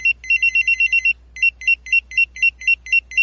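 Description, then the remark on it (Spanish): A pager beeps out a fast electronic melody of short, bright tones, first in a quick burst, then after a brief pause in evenly spaced repeating phrases, clear with a low hum underneath. “Los soniditos debido a los beepers.”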